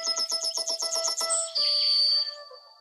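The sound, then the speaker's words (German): A yellowhammer's song played on a musical instrument: a quick run of about eight short, even, bright notes, then one long sustained note that fades out. No voices. “Das ist jetzt der Gesang. Wie, wie, wie, wie, wie, wie habe ich dich lieb? Und jetzt kommt das mit Instrument nachgespielt.”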